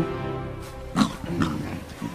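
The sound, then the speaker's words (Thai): A hungry lion growls and snarls while tearing into a deer it has caught: low, rough rumbles with a few louder bursts near the middle, with no one talking. “ราชสีเมื่อจะคุกกวางได้ ก็กินอย่างมูมามด้วยความหิว”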